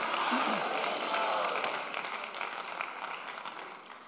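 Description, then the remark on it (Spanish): A large crowd claps loudly in a dense, sustained burst of applause that gradually tapers off over a few seconds, with faint voices mixed in. “Vamos, si usted lo cree, denle un aplauso fuerte.”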